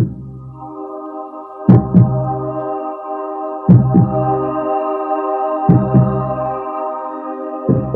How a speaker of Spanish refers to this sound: Tu latido. Mi latido. Nuestro latido.